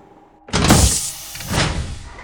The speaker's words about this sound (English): Okay, I'm evacuating the air. Opening the hatch.